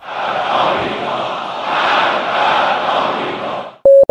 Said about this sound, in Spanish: Su discurso fue a menudo interrumpido por los gritos de la multitud presente, que pedía la muerte de Estados Unidos y la muerte de Israel.